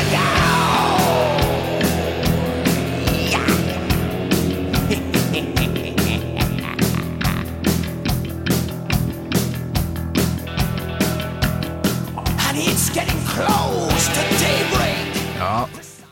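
A loud, dense heavy metal passage with driving drums and distorted guitars, topped by a shouted, raw vocal that rises and falls throughout.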